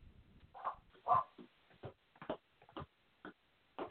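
A small dog yaps in a quick, irregular string of about eight short barks at a lawn worker who has arrived, sounding somewhat muffled, with no talking over it.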